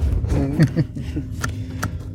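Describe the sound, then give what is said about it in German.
Steady low rumble of a car driving, heard from inside the cabin, continuous throughout, with a voice murmuring over it and a few brief clicks, as the car sets off for a farm in the morning. “Äh, man hört das Autos an.”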